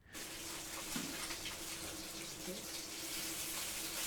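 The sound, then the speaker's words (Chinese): Hairtail fish sizzling in a frying pan in the home kitchen of a household at Houdeli, Xinchang Road: a steady, dense hiss and crackle that holds evenly throughout, with a faint low hum beneath and no voices. “这是新昌路厚德里一户正在煎带鱼的人家。”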